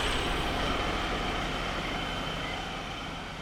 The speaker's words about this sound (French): Là, il y a une voiture qui se gare avec euh, une famille qui sort avec des chemises euh, très colorées.